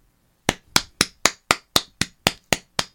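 Ten loud, sharp hand claps into a microphone in a steady, even rhythm, each a crisp snap with a quick decay, with no talking.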